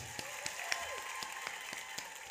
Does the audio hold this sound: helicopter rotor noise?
no